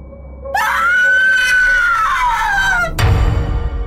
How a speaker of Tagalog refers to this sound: nagising si Marites mula sa pagkakaidlip nang marinig niya ang isang nakakakilabot na sigaw